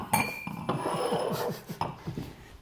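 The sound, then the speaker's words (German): Several sharp clinks and clunks of full black drinking glasses being set down on a hard surface, spaced irregularly over a couple of seconds, with light handling noise between and no talking. “So, die Gläser sind voll. Da kommen die schwatten Gläser.”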